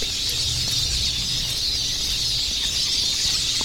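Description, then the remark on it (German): A flock of siskins calling together, a dense, continuous wash of high, thin twittering and chirps that holds at an even loudness throughout, with no voices present. “Aber dann kann man schon mal so einen Schwarm von 50, 60, 70 Ahrenzeisigen hören.”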